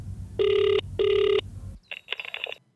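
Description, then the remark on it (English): A telephone line rings with two quick, steady electronic tones in a double-ring pattern, loud, then cuts off into a brief burst of crackly pickup noise. “Oh, it's ringing.”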